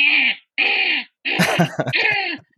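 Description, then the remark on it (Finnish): A voice imitates the squawking of gulls from a nest on the roof: two short, harsh, raspy calls, then a longer, stuttering squawk and a final cry, all loud with no speech around them. “Ja sitten mun joku fucking lokinpesä tuossa niin katolla. Niin jos mä pidän parveket auki, niin koko yö kuuluu semmoinen”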